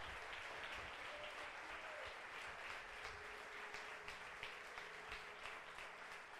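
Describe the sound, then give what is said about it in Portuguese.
An audience at a Portuguese-language Christian sermon applauds God at the preacher's call. Many hands clap in a dense, continuous wash that holds at an even level throughout, with faint tonal hints of music or voices underneath. “Aplauda ele, aplauda ele.”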